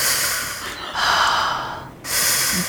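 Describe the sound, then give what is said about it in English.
A voice imitates breathing through a reed while hiding underwater in a hot spring: a long, hissing, airy inhale followed by a brief pause and another breathy draw, fairly loud, with no talking. “And I am using a reed to breathe, and I'm under the water in the hot spring using the steam to conceal me.”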